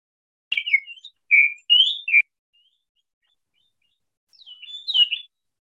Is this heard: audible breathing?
no